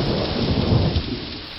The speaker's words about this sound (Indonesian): Aku harus berterima kasih untuk badai yang mulia yang telah engkau hembuskan di antara gunung kami. Dengarlah gemuruh yang penuh kemenangan itu.